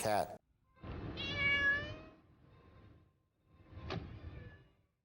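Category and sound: animal, cat meowing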